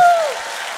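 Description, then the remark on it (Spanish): An audience claps together for an audience member from Culiacán, Sinaloa, who turns 22 on Tuesday, in a dense, steady burst of applause, loud at first and settling to a sustained patter through the short clip. “El martes, un aplauso porque cumple años el martes.”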